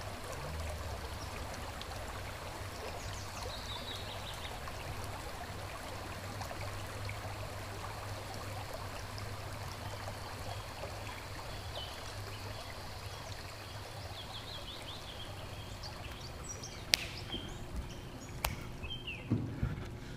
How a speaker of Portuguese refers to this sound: às vezes o barulho do rio Maracanã.